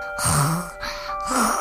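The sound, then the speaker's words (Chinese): A voice imitates a big mouse snoring: two drawn-out, breathy rasping breaths with a low droning tone, separated by a brief pause. It is fairly loud, with no talking. “大老鼠，大老鼠，你在打呼噜！”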